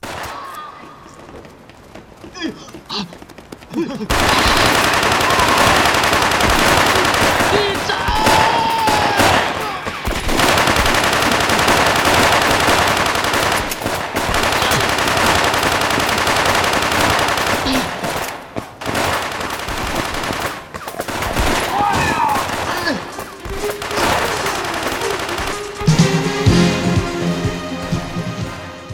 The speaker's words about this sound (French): Au premier abord, bien sûr, il paraît bien curieux d'associer le terme romantique à des films où les héros se tirent dessus un pistolet dans chaque main.